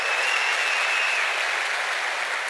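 A steady wash of audience applause at a live show in Chile, many hands clapping densely and evenly at a strong, constant level for the whole stretch, with no voices standing out above it.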